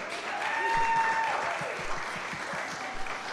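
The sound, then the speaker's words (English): An audience applauds a band, a dense steady wash of many hands clapping at once, with a faint whistle rising above the crowd noise partway through. “What about that band? Give them a hand clap.”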